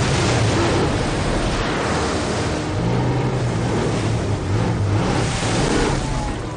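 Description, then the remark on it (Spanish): A car makes a last leap through a roaring waterfall and enters a cave: a loud, steady wall of rushing water with a low engine drone humming underneath for several seconds, continuous, with no voices. “Con un último salto atraviesa la cascada de agua y entra en su cueva.”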